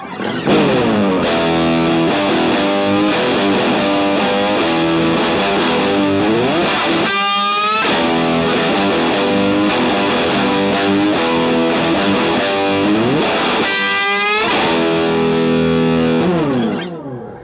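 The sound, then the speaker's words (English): A heavily overdriven electric guitar, run through an Orange overdrive, a Blues Driver, a POG octave pedal and Echoplex and Carbon Copy delay pedals, plays a loud, sustained lead with an added octave shimmer and trailing delay echoes, including two sweeping pitch bends, with no one speaking. “I go orange, blues driver, pog, and I use this is when I, I like to throw on the carbon copy nice delay”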